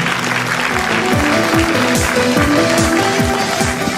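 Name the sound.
church audience applauding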